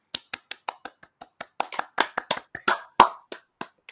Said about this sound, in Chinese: 那很高兴呢，我们今天邀请到呃一位是非常在班上非常认真、非常认真、认真到连老师都有点快不敢相信的那种地步的同学，我们掌声欢迎他。